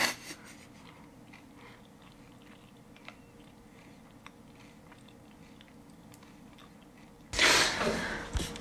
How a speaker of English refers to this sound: That was my friend … chewing